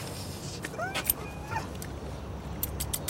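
A few light metallic jingles of car keys being handed over, short clinking bursts scattered across a few seconds, set against a steady low rumble with a brief murmur of voice.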